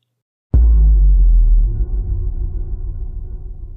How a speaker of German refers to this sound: So muss es sein, denn das plötzliche Aufstoßen der Kellertür lässt mich hochschrecken.